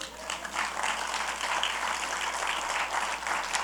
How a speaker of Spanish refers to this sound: Dar un aplauso a Cristo.